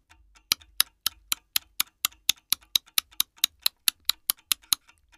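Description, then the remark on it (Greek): A quick series of sharp, dry clicks, about twenty in steady rhythm with slight paired accents, alone: a person knocking their teeth together as a game to mimic a galloping horse. “Χτυπάω τα δόντια μου και ακούγεται καλπασμός.”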